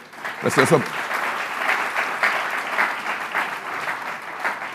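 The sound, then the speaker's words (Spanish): A church audience claps steadily in a sustained round of applause to the Lord after praise and worship, lasting several seconds, dense and even, with a brief spoken voice at the very start over the clapping. “Un aplauso al Señor, qué lindo,”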